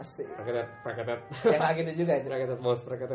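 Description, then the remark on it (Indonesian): A voice repeats a nonsense gibberish phrase, imitating alien speech in a quick, sing-song rhythm, fairly loud, with brief ordinary talk around it. “Tapi yang masih gua ini suara alien gimana ya?”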